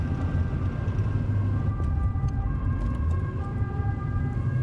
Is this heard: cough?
no